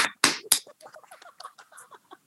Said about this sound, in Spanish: Palmas. Bravo.